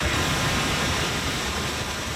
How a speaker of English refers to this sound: Welcome water fountain mist in 102 degree Paris heat.